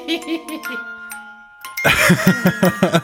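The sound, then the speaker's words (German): A few glockenspiel notes are struck and ring with a bright, sustained shimmer before fading. Then a person starts speaking while the last tone still lingers faintly underneath. “Der heimliche Star der Outtakes. Das Glockenspiel.”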